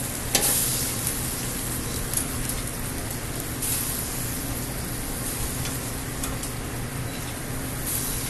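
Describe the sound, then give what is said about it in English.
Steady, dense sizzling of pasta frying in a hot pan with butter, fresh cracked pepper and added hot pasta water, with scraping stirring noises and occasional sharp clicks breaking through the constant hiss; no one speaks. “And now again, pasta water. Woo! That's hot. Throw some more on there.”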